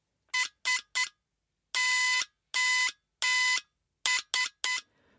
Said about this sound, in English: This was my friend Samuel's idea. Samuel Morse. Perhaps you've heard this Morse code in an old film as a ship was going down. SOS, they would tap out on this device, several beeps for each letter.